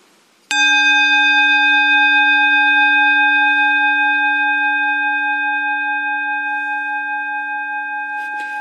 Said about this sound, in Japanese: 11時になったら私は鐘鳴らしますからそれを聞いたら戻ここ戻ってきて、えーと、とアナパナサティですね呼吸瞑想をしたいと思います、ね、はい、じゃあちょっと鐘だけ一回鳴らしますからね